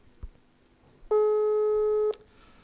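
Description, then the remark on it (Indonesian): A phone's outgoing call tone, for a call made using mobile data quota, sounds once: a steady, buzzy electronic beep lasting about a second, loud, with only faint room noise before and after. “Telepon pakai kuota. Ini telepon”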